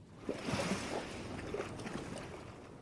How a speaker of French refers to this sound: une eau bleue turquoise, peu profonde, 28-29 degrés, du soleil, un léger clapot de toutes petites vagues, et au loin on devine la barrière de corail sur laquelle se brisent les vagues de l'océan.